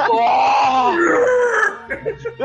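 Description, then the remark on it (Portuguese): A person voices a loud, strained, wavering scream for about a second and a half, imitating a cartoon hero's transformation cry, then it breaks off into a few softer vocal bursts. “Ele tinha que transformar gritando, tá ligado?”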